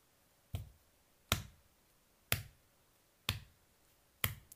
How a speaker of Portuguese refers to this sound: As mãos? batendo as mãos na barriga. Talvez agora estejam surgindo alguns ritmos, uma batida a cada tempo.